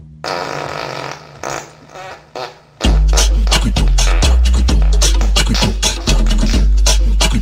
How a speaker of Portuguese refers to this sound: Eu só peidei. Se ligue aí. Escuta só o som que sai daqui.